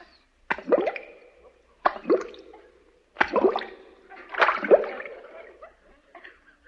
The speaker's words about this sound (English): That was King Farouk in a skin diver suit, 20 feet underwater, applauding ….